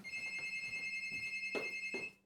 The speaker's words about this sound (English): Oh, studio phone's going. Studio phone's going.